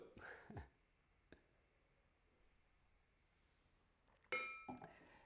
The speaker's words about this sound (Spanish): Te lo mereces todo, gracias, brindo por ti. Gracias. vamos a brindar, vamos a brindar por los 400 streams. Salud.